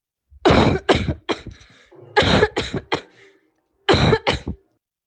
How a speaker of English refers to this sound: For example, here is a cough of a healthy individual.